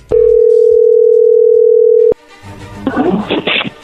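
A steady, loud single-pitch telephone dial tone holds for about two seconds as a call is being dialed, then cuts off with a click, followed by muffled rustling and faint indistinct voices.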